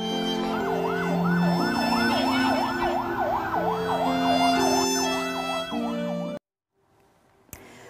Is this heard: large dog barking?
no